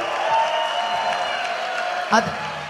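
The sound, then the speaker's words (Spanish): A steady wash of applause and cheering from the audience at a rap battle in Concepción, dense and continuous, with a faint sustained tone underneath and one sharper burst near the end. “Concepción, aplauso fuerte, por favor.”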